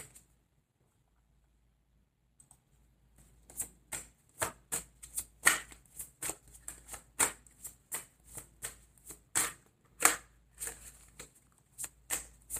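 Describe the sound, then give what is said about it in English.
Tarot cards being shuffled and drawn, a quiet start giving way to a steady run of crisp riffling slaps and snaps, roughly every half second, with no voices. “May I have another card, please?”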